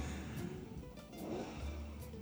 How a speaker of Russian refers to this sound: Что там со звуком? Они просто на микрофон записывали, там газует мотоцикл.